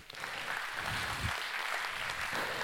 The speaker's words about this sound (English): Let's give a clap to God for that, man.